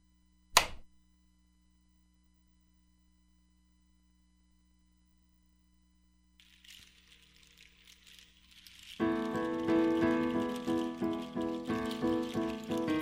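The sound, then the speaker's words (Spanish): After a sharp click and a long silence, a soft, steady patter of rain fades in, then a swelling rhythmic musical passage rises loudly over it. “Lluvia.”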